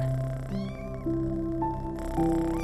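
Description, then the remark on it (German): Several kittens meow in overlapping, high-pitched mews that rise and fall continuously for a few seconds, layered over a steady tonal backing, with no one speaking. “Du verabschiedest dich von Mika und den Kätzchen und springst schnell aus dem Zimmer.”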